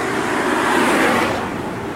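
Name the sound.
cars driving by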